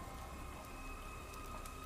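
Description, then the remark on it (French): Rain falls at a modest, simple church in a steady, even hiss with a soft patter, faint and continuous throughout, with a low, sustained tonal hum lingering in the background. “Alors, il pleut, hein, mais elle est couverte de, grandes traînées vertes”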